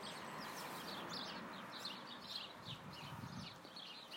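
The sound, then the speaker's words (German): Birds chirp outdoors in quick repeated bursts, a few calls overlapping, over the steady rushing of light wind. The whole scene is fairly quiet, with no one talking. “Und das waren jetzt gerade die Vögel, die ich euch ge also die ihr jetzt gerade gehört habt.”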